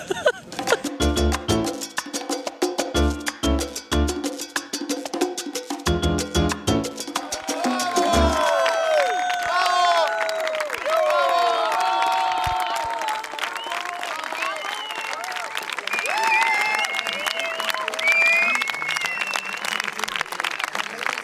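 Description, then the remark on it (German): A large audience applauds loudly with rhythmic stomping at first, then breaks into sustained clapping mixed with cheers and scattered shouts of approval. “der Applaus des Publikums ist unser Lohn.”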